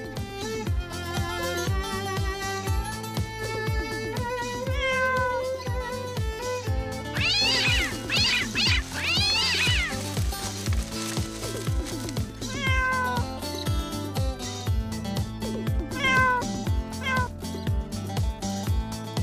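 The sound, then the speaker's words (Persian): Several cats meow in a quick cluster of rising and falling cries midway through, set against steady, rhythmic background music that plays throughout with no talking. “ما الان باید بریم دنبال هفتا تا گربه رنگارنگ”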